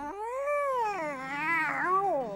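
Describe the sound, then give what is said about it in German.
A single long, drawn-out cat meow, rising and wavering in pitch like a plaintive yowl, loud with no talking around it. “richtete sich Kitty auf, machte große Augen und miaute”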